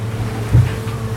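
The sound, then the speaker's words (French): Strong northwest wind of 30 to 42 knots roars over the open sea southwest of tropical depression Theta, in a steady low rumble. A single heavier wave thuds against the hull about midway, and no one speaks. “Il y a 30 et 42 nœuds de vent de nord-ouest.”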